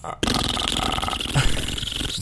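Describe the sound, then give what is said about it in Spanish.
A person imitates low baleen whale song with a single sustained, growly, guttural rumble lasting about two seconds, loud, with no speech. “Ese es el canto de la ballena.”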